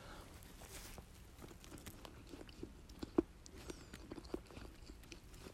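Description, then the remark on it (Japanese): Quiet, steady chewing of a curry bread being taste-tested, with soft irregular munching and a few sharper crunchy bites standing out, and no one talking. “それではちょっと食べてみようと思いますあの咀嚼音とかあったらあの汚ねえなと思われると思うんですけどごその辺はちょっと皆さんご勘弁ください”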